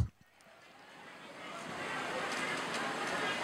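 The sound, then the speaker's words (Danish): A dense, continuous whirring clatter of many sewing machines running at once fills a huge garment factory hall in Cambodia where hundreds of women sit at sewing machines, swelling from quiet to a steady, loud roar within a few seconds. “Og, øh, og det her, det er en, øh, en lyd, øh, og I skal forestille jer her en kæmpe hal, hvor der sidder hundredvis af kvinder med symaskiner.”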